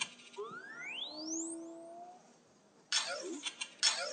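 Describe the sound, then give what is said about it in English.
A small BB-8 toy robot droid, driven from an iPhone, lets out a quick run of rising, warbling electronic chirps and beeps, followed by a burst of brief whirring motor and mechanical clicks, fairly quiet. “So all these sounds.”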